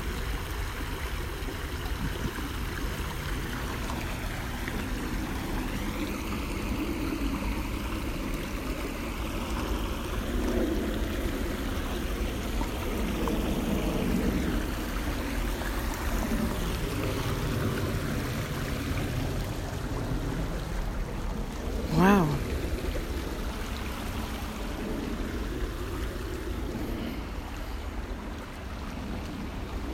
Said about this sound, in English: Nothing like the sound of water.